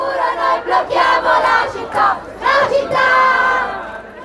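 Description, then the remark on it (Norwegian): A crowd of about 30,000 young protesters chanting in unison in the streets of Rome, Italy, demanding climate action: a loud, rhythmic swell of many raised voices rising and falling in bursts with no pause in between. “Hvis de sperrer for framtiden vår, sperrer vi byen, roper de.”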